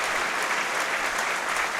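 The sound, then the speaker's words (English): Steady applause from a large stadium crowd at a football match, applauding the substituted player O'Connor as he comes off in the 71st minute, a dense wash of clapping that holds at an even, fairly loud level for a couple of seconds with no voices standing out. “And I think O'Connor deserves his applause.”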